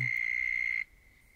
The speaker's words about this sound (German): Geschichtsstunde und Zikaden hören auf.